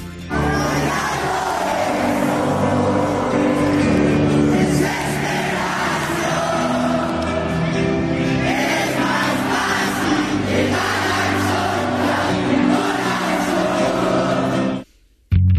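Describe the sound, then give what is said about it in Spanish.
A huge concert crowd in Mexico screams and sings loudly and continuously over booming live music, the roar holding steady for about fourteen seconds before cutting off abruptly. “Mm, mira, vamos a poner un trozo sin gritos para que lo deis todo y podáis cantar.”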